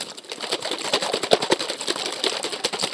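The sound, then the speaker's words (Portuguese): Water sloshes and rattles inside a plastic bottle holding about two fingers of water, shaken steadily, producing a continuous run of quick splashy, crackly bursts, moderately loud, with no voices. “Uma garrafa de plástico que eu coloquei ah. dois dedinhos de água e balancei aqui para vocês”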